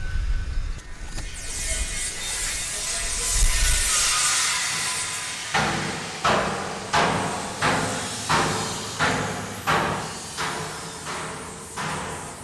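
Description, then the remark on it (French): Tools at work repairing and maintaining farm machinery, work done through the winter: after a stretch of low rumbling and hiss, about ten sharp, ringing hammer blows fall at a steady rhythm, loud and evenly spaced, with no talking. “Quoi on entend clairement des outils. Euh, c'est le moment où on répare et on entretient tout le matériel.”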